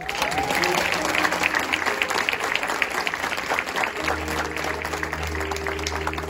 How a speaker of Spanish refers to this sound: Dale un fuerte aplauso.